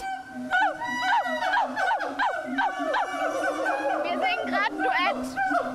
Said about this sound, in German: Die Gibbons flitzen umher und plötzlich geht's los. Was für ein Affentheater! Die Affen beginnen zu singen und ich mache natürlich gleich mit.